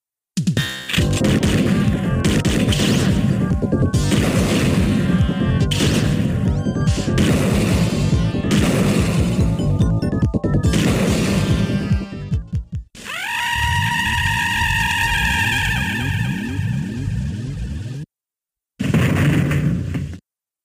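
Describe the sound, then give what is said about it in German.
A loud, chaotic video game shootout: dense bursts of impacts, crashes and explosive blasts for about twelve seconds, then rising and falling tonal sweeps with rumbling, ending after a brief silence with one more burst. “Also ich bin ein bisschen gespalten, was diese Shootouts angeht.”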